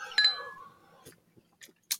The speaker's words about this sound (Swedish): Skål på den! Skål på den! Precis. Kling, kling.